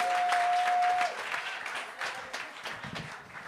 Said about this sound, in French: J'aimerais que tout le monde commence à applaudir maintenant, s'il vous plaît. Tout le monde applaudit. On commence à applaudir plus fort, plus fort, plus fort, plus fort, plus fort, plus fort pour